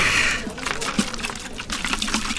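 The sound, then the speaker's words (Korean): Makgeolli pours into a kettle in a trumpet-shaped swirl, a steady, swirling gush, a continuous bright splashing rush with a few louder gurgles and splashes rising through it. “막걸리가 나팔 모양으로 소용돌이치며 주전자 안으로 부어지는 거예요.”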